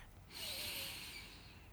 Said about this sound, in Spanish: Me concentro en la sensación de mi respiración entrando y saliendo por mi nariz. Solo respirar, inhalar